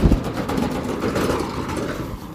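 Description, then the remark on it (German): A heavy vehicle of at least 5 tonnes overtakes, its deep engine rumble and road roar holding steady and loud for a couple of seconds, with no voices. “Wir werden jetzt von einem mindestens 5 Tonnen schweren Fahrzeug überholt.”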